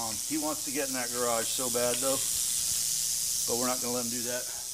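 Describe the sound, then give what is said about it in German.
An agitated, coiled red diamond rattlesnake rattles steadily throughout, a dry, continuous high-pitched sizzle, while a man's voice speaks in short bursts over it. “Das ist unsere rote Diamantklapperschlange, eine der zwei häufigsten Arten hier. Sie ist ziemlich sauer, will unbedingt in diese Garage, aber daraus wird nichts.”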